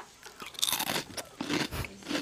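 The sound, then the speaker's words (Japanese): Crisp crunching as someone bites into crunchy food and chews while people take turns eating, a burst of several sharp crackling bites in quick succession with no talking. “ちょっとじゃあの一人ずつあの食べる時ちょっとちゃんと”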